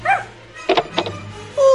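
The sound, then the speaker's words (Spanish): A small female dog lets out a few sharp barks and yips, with whiny, high-pitched yelps at the start and end of the short burst. No one speaks. “Ay, qué bueno que vienen por la perrita.”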